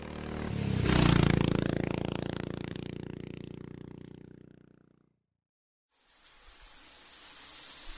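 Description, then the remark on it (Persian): A motorcycle engine revs up loudly as a man hurriedly rides off from a house, then its roar steadily fades away and cuts out; after a brief silence, a steady hiss of rushing shower water begins. “دقایقی بعد شهرام با عجله از خانه بیرون زده و سوار بر موتور پی مقصدی شتافت.”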